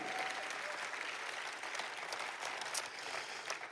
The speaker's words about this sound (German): Jeden Sonntag ist ein Team, das hunderte von Abendmahlbecher frisch einfüllt und das Brot bereit macht. Das ist jede Woche gewaltig viel Arbeit. Lass uns dem Abendmahl-Team einen Applaus geben, weil ich sehe sie immer.